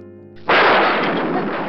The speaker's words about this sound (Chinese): 不一会儿，乌云移动的迅速，实在惊人，顷刻间就遍布了整个天空。空中啊，发出了雷声，